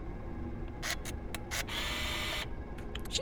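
Short mechanical whirs of a small security camera motor zooming in and out, several brief bursts and then a longer sustained whine, fairly quiet over a low background rumble.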